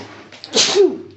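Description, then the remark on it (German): A single sharp, loud sneeze, with a quick breathy burst followed by a short voiced tail, then quiet. “Gesundheit.”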